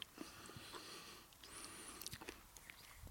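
Close, quiet wet chewing with soft squelches and small mouth clicks, a steady mastication rhythm over about three seconds, no talking.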